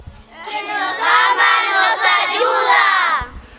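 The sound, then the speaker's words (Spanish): A group of young voices shouts the slogan of the Infancia Misionera (Missionary Childhood) group together in unison, loud, one sustained burst lasting about three seconds before cutting off. “A ver, vamos a gritarlo, vamos.”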